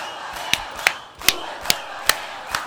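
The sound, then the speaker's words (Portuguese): A crowd at the Pi Bailão Disco Club roars in a steady wash of noise while sharp, evenly spaced claps or beats cut through about every half second, six in all. “O público está pedindo. O público se manifesta. O público aplaude.”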